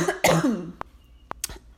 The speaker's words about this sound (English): that was just a cough because my throat's dry because I've been talking for a minute,